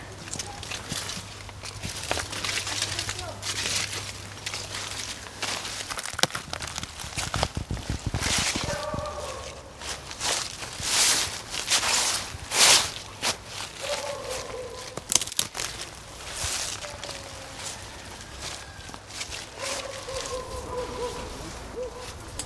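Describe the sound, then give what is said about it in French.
Crunching footsteps shuffle steadily through dry leaves along a path in a forest, crackling with each step, while birds chirp intermittently in the background and a low hum fades out early on. “C'est ici, dans l'allée, quand on marche, on entend le bruit des feuilles.”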